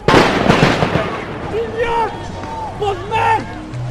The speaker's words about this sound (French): Le blindé n'avance pas, les gendarmes tirent des grenades en tous sens.